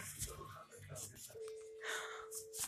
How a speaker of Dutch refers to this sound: Oh. Oh, gapen, rozig van de verwarming.